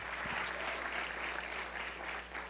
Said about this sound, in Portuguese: Pode dar uma salva de palmas ao nosso Deus. Aleluia.